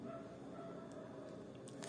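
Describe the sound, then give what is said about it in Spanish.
Dogs bark, a steady, muffled stretch of yapping and bow-wows that carries on without a break, fairly faint and with no talking over it. “Es que ahorita empezaron a ladrar unos perros”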